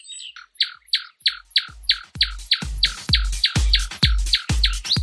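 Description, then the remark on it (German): A male nightingale sings a fast run of repeated bright chirping notes, evenly spaced, growing louder and fuller as the phrase goes on, with no voices present. “Ab Mitte April singen die Nachtigallmännchen vor allem nachts und manchmal sogar rund um die Uhr, um Weibchen anzulocken.”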